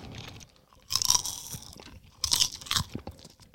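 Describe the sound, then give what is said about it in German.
Crunching and chewing of strawberry popcorn, with two bright, crackly bursts of bites followed by softer, irregular munching, moderately loud with no talking. “Wenn die etwas mehr knistern würden noch, dann wäre das eine echt coole Sache.”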